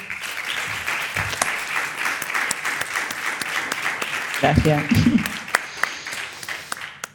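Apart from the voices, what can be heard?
audience applause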